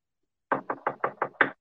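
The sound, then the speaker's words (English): Six firm knocks on a door in a quick, steady rhythm, clear, with silence before and after and no voices, as Christians go knocking on doors in the area to meet people. “We're just knocking on some doors, trying to meet some people and letting them know that Jesus Christ came into the world to save sinners.”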